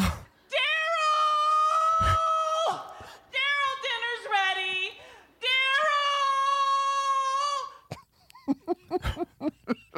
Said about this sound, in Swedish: Var beredd på ett nytt vrål.